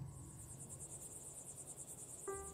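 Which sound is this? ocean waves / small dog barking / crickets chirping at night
crickets chirping at night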